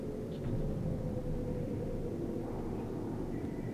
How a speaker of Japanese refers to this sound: すぐにエンジンの大きな音が響き船は急加速で動き始めた